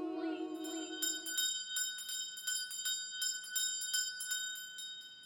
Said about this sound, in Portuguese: foi interrompido na sua exaltação pelo carrilhão dos sinos. Tlim, tlão, tlim.